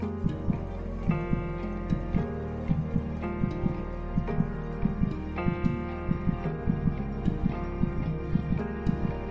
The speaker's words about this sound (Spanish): Siente a tu bebé. Trata de percibir el latido de su corazón.